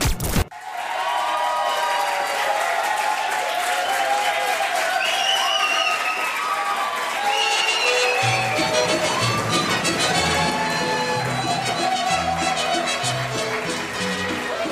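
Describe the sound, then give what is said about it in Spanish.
A large crowd gives a standing ovation in tribute to Antonio "La Tota" Carvajal, applauding loudly and continuously, a dense steady clatter of clapping with cheers and shouts rising over it, growing fuller partway through and lasting the whole time. “Palmas, palmas, palmas y más palmas y palmas de pie eh, porque hoy lamentablemente sí una leyenda, don Antonio La Tota Carvajal”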